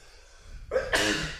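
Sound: a sneeze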